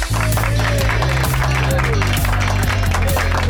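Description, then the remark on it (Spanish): Steady applause and clapping welcome the show's guests, filling the moment at full volume, mixed with a bright musical backing whose bass notes shift every second or so. “Pues eh, primero un aplauso para vosotras, bienvenidas.”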